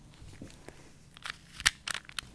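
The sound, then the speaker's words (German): A Rubik's cube being twisted: a few short, crisp plastic clicks and ratchety crunches in an irregular rhythm after a quiet start, one snap louder than the rest, with no voices. “Dann gibt es noch einen Zauberwürfel. Ich mach, ich mach mal den Sound davon.”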